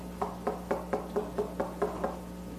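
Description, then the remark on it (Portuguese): Around nine quick, evenly spaced knocks on a door in a steady rhythm, moderately loud, over a faint low hum with no voices. “Todo dia ele bate na tua porta.”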